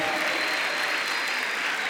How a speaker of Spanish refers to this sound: Recibámoslos con un fuerte aplauso, bien fuerte.